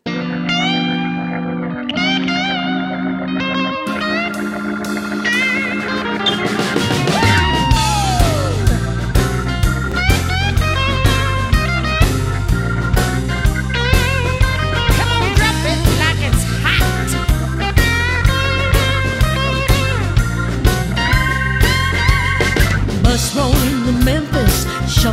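A female rhythm and blues rock song opens with a few sparse, sustained tonal notes, then a full band kicks in with loud, heavy bass and a steady, driving drum beat.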